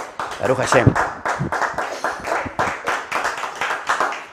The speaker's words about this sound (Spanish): Denle un fuerte y caluroso aplauso a esta dimensión del Zohar Akadosh.